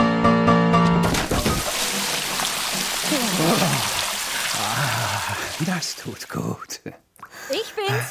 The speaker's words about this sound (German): Um Gottes Willen, Ludwig, was ist denn hier passiert? Mir war so heiß, habe ich mir einen Eimer Wasser über den Kopf gekippt. Die Noten sind ja auch alle nass geworden.